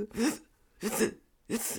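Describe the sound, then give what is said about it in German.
A voice imitates the strained, effortful breathing of people after being flung around under g-force, in three forceful, raspy bursts with short pauses between them. Fairly loud, like someone pushing air out under heavy pressure. “Und dann sitzen die da und können dann mehrere Minuten ganz komisch nur atmen. Die sitzen dann so und atmen so.”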